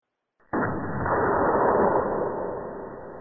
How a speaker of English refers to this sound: The explosion in the engine room at 2 p.m. was wholly a surprise. No defect in the machinery or carelessness in the men had been noticed, yet without warning the ship was racked from end to end with a colossal shock.